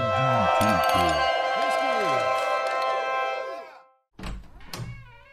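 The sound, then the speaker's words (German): A short musical jingle, played in to open a pub segment, of bright, sustained synth chords over a bouncy, swooping bass line fades out after about four seconds, then a couple of brief thumping knocks follow. “Das heißt, äh, ich spiele jetzt den Jingle ein.”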